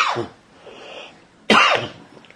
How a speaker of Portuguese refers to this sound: Aí, perdão pela minha tosse, né?